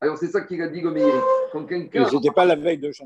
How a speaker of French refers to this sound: ça, c'est le chat.